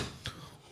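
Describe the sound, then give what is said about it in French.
A chair breaks with one brief, dull crack, then a faint knock follows as something falls. The sounds are short and fairly quiet, with no voices. “qu'est-ce qui est tombé Non, c'est la chaise qui a dû casser.”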